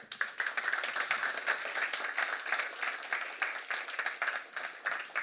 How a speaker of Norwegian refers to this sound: en stor applaus.